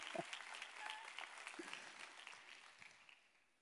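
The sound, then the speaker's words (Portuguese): An audience bursts into applause to the Lord, a dense wash of many hands clapping at once that holds steady, then gradually thins and fades out, with no voices over it. “Aplauda de novo ao Senhor pelo tuxê.”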